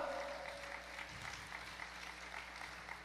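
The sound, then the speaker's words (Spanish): An audience applauds for the Lord at a preacher's call, with a steady, dense patter of clapping lasting a few seconds, fairly even in loudness and without talk over it. “Dale otro aplauso al Señor, por favor.”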